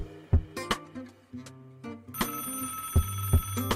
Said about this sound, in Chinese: 您有一个插播来电。